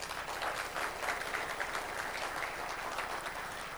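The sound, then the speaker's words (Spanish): An audience in Farmers Branch claps steadily for Christ, a dense, continuous wash of many hands at an even loudness throughout, with no voices standing out above it. “Denle otro fuerte aplauso a Cristo, hermano.”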